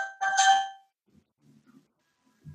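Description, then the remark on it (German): A single bright bell ring sounds once, short and clear, then fades into near silence with only a few faint low murmurs afterward. “Da klingelt es einmal.”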